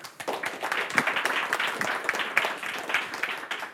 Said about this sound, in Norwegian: Men i hvert fall, gi Mimir en applaus.